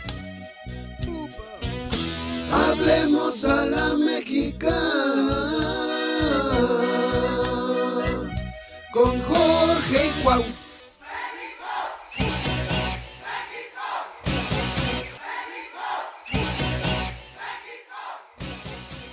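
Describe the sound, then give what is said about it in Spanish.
A loud, energetic intro jingle with driving beats and bright layered music, which breaks into punchy stop-start bursts in its second half. “vamos a poner nuestra cortinilla que estamos benditos porque … empezó con regalarnos esto”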